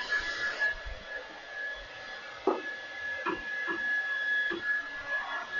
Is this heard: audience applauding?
no